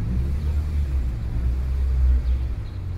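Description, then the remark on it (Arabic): A taxi's engine rumbles steadily, a deep continuous drone that holds for a few seconds with only slight swells, with no voices over it. “أنا بقضي كل وقتي في سيارات الأجرة مثل أبوي لأنه اثنين بنعرفش نسوق ولا بدنا نتعلم”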